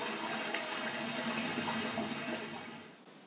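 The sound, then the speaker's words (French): A toilet flushes, a steady loud rush of water swirling for a few seconds before tapering off and fading out at the end, with no voices, as a dead pet goldfish, Mr. Wiggles, is flushed down it. “le jour où Mr. Wiggles, mon poisson rouge, est mort, nous l'avons jeté dans les toilettes.”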